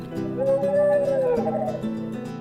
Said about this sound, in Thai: มีเด็กคนหนึ่งใช้หนังสติ๊ก ยิงกระสุนดินใส่นกฮูก กระสุนดินก้อนขนาดเท่านิ้วก้อยฝังลงไปที่ใต้ปีก แม้จะไม่มีเลือดออกมา แต่นกฮูกก็รู้สึกเจ็บปวดมาก เพราะกระสุนดินติดอยู่ มันร้องโอดโอยอย่างน่าสงสาร